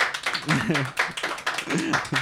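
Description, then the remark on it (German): A small crowd at a stage show claps in quick, uneven bursts throughout, moderately loud, while voices talk and call out over the clapping; the audience is clapping to vote on whether a performer should do his set standing on a ball. “Können wir mal ganz kurz, könnt ihr mal klatschen, wenn ihr dafür seid?”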